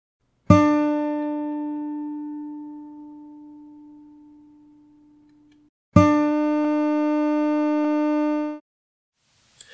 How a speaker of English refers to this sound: The first one is a 5 second sample of me playing the note D on my guitar. The second is that same sample, but only using the first 355 milliseconds, looping the last 3 milliseconds until it reaches 5 seconds. Have a listen.